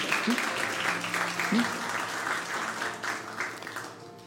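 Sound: audience applauding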